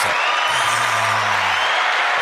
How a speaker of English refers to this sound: You need, you need a clap. You need a clap.